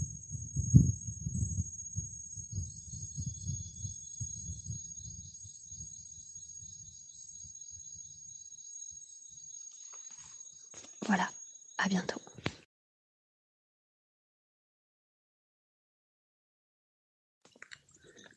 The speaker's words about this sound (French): on a 20 km de descendre dans la jungle. Et donc voilà, je voulais juste vous faire partager ce moment et je vais vous faire écouter la jungle.